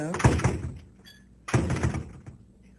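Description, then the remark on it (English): A door shuts with a solid, heavy thunk, then a second similar thud lands about a second later. Both are fairly loud, each with a short resonant ring. “Then she and, whispers something to me like, they know when the door is shut.”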